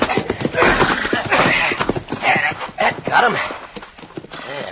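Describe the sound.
Horse hooves clip-clop in a quick, busy rhythm while a horse whinnies loudly as it is pulled out, the scuffle of movement filling the scene along with some voices.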